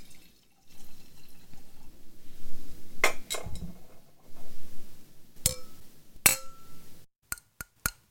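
Drinking glasses clink together in a toast, several sharp clinks scattered over a few seconds with soft background rustle, ending in three quick, bright taps in a row; one glass, full of spritzer, cracks during the toast.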